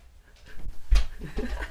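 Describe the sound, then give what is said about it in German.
A dog pants after opening a door, in a quick run of breathy huffs that build up over a couple of seconds, with nobody talking. “Wenn sie einen Hund die Tür aufmachen kann, ist es schlimm.”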